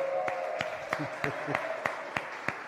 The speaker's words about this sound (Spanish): Otro aplauso para ellas dos.